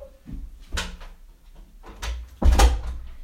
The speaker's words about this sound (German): Mal wieder am Anfang die Tür zu machen.